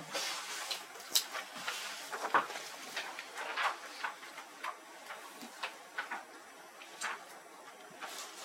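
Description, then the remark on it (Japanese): A quiet clock ticks steadily, a series of soft, sharp clicks repeating roughly twice a second against a faint room hiss, with no one speaking. “ちょっと休憩しましょうか、えー、まあこの時計であと10分 ,10 分分になったら、えー、4時10分にまた始めたいと思います”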